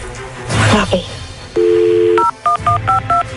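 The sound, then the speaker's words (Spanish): A phone number is dialed to call a husband: a brief rustle, then a steady dial tone, followed by a quick run of about six short touch-tone beeps at varying pitches. “Vamos a marcarle a tu marido.”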